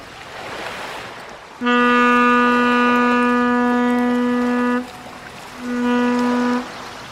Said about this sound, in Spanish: Pedazo de barco que sale del puerto Inco. Eh, eso es un carguero, Iñaki. Ay, ay, ay, me, he dejado, me he dejado llevar por el entusiasmo. Eso es un carguero y ese además lleva coches.